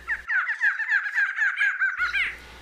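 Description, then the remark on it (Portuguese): A barred antshrike, a widespread species, calls alone, recorded at the CBN radio studios: a rapid, accelerating run of nasal, mid-pitched notes lasting about two seconds, ending in a brief rising flourish. “Pois é, é o som da choca barrada. Uma espécie de ampla distribuição pelo nosso país e que o Reger fez um flagrante nos estúdios da rádio CBN.”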